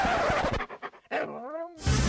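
A dog pants in quick, rhythmic breaths, then lets out a drawn-out, whining bark before a burst of noise cuts in.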